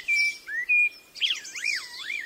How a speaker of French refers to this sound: Les experts s'entendent définitivement pour dire que les oiseaux mâles utilisent vraiment leur chant pour communiquer leur intérêt romantique pour les femelles.